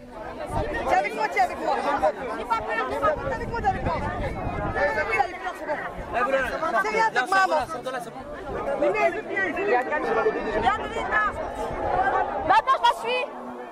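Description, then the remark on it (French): Dense crowd chatter during a pilgrimage procession, with a jostling crowd surge, fills the air, many overlapping voices murmuring and calling out at once in a steady hubbub with no single speaker standing out. “En fait, c'était vraiment un mouvement de foule assez incroyable, assez impressionnant.”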